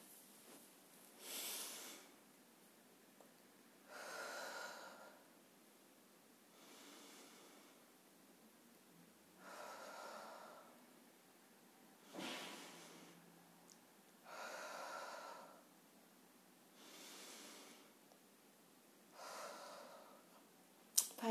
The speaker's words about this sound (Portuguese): Terminar com respiração diafragmática é uma ótima maneira, né? então vamos lá.